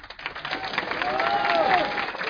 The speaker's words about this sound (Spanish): Y un aplauso también más fuerte también para todos ustedes, por favor. que se escuche. Fuerte su aplauso, es para ustedes.